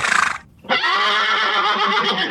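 animal, horse whinnying

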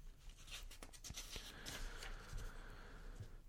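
household object, paper pages being turned

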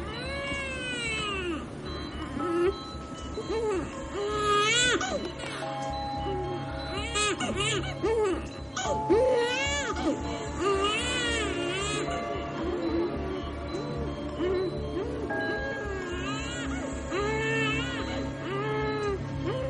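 human body sound, babies crying

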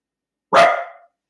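animal, dogs barking

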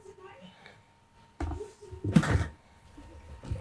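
household object, chair creaking or moving

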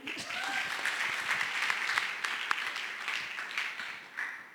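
crowd, audience applause

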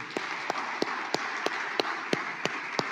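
crowd, audience applauding

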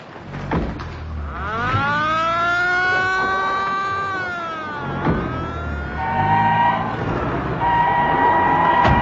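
signal or alarm, alarm siren

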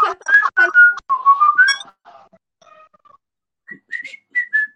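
human body sound, person whistling a tune

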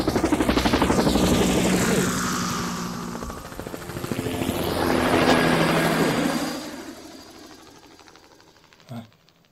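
vehicle, helicopter flying overhead

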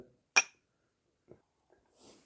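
household object, glasses clinking

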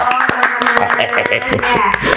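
crowd, clapping

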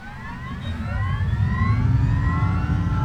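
vehicle, police siren approaching

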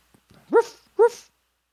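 animal, dog barking

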